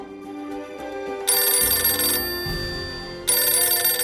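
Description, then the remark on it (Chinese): A telephone bell in an attic, the phone on a table with its line hanging from the ceiling, rings in two loud, bright bursts of rapid metallic trilling, separated by a short pause, with no talking. “这时候，阁楼突然响起了铃声，大家非常紧张，但仔细听，其实是电话的铃声。”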